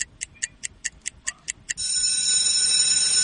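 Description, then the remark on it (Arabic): A quiz game bell rings after a correct answer: about nine quick, evenly spaced bright dings, then a continuous loud metallic ringing that carries on to the end, with no voices. “جابها جابها جابها جبتها جبتها يا جماعة دق الجرس”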